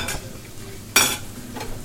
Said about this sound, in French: Ça crépite, ça cuit, ça brûle, ça. Ça commence.